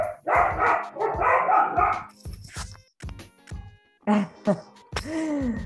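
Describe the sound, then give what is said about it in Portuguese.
A dog barks repeatedly, a series of sharp, loud barks in an irregular rhythm, some followed by short whining or yelping sounds, with no talking. “Momento, cachorro.”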